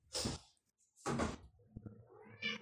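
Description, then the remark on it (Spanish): A cat meows loudly twice, with a brief pause between calls, followed by softer scratching and thumping like paws at a door and a quieter trailing meow. “No, este es el otro gato, tengo como 20, ¿te acordás?”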